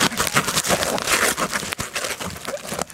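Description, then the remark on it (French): Continuous crinkling and crackling of bubble wrap being handled, with brief scratchy tearing bursts of sticky tape pulled from a roll; no voices. “Vous allez chez Bureau, en gros, vous achetez du papier bulle que vous mettez comme ça. Et là, vous sortez du scotch tape.”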